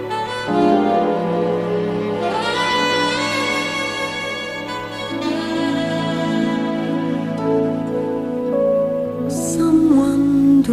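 A female vocalist sings a Broadway show tune with long, sustained notes over a full orchestral accompaniment, loud throughout, swelling slightly toward the end.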